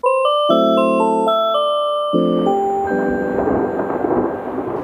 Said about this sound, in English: Sounds like a storm. We'd better close the windows.